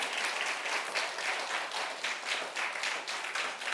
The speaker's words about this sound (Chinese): 给个父亲一个掌声，好不好？